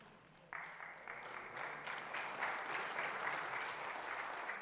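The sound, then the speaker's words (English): An audience breaks into applause, steady, dense clapping that starts abruptly and swells slightly for several seconds. “Yeah, I'll clap to that.”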